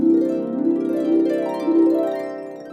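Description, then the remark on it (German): An oboe plays a sustained, nasal, reedy tone for a few seconds, loud and close, with rich buzzing overtones and a slight waver in pitch, with no voices present. “Und das heißt, und der Klang ist tatsächlich auch sehr durchdringend anstrengend.”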